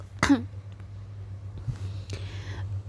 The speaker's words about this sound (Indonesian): aduh kok gue batuk